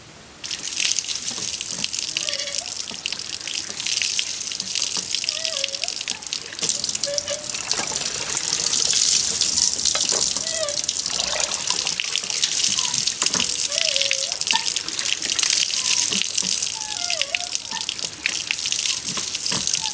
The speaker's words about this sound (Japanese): 目覚めのいいね今朝は文京区本郷にある井戸のいい音それではお聞きください